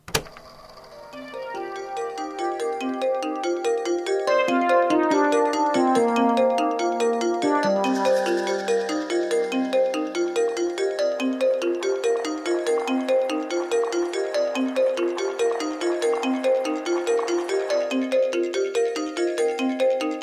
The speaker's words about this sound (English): Anyway, so uh, let's uh, give the song a little listen. Let's shall.